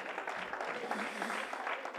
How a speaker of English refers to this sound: clap for Jesus and make it louder than how you clap for me. Clap for the Lord.